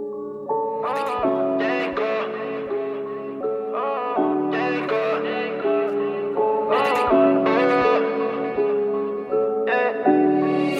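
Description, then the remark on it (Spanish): The first track of a music album plays at a steady, full volume, with layered, reverberant sustained chords that shift every couple of seconds over a low bass line, with no singing or speech. “Vamos a escuchar el primer tema del álbum.”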